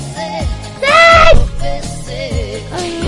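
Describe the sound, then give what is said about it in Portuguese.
A dog whines, wanting to enter a radio studio, in a series of high, wavering cries, with one loud, drawn-out yelp in the middle and shorter whimpers before and after it. “O, o, cachorro quer entrar no estúdio não dá muito certo.”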